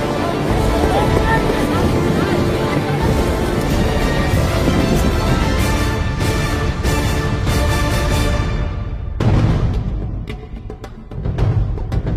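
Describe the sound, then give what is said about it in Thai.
Rubber boat engines roar loudly and steadily during a military raid exercise with rubber boats, with wind and water rushing, then drop briefly before surging again near the end. “โจมตีโฉบฉวยด้วยเรือยาง”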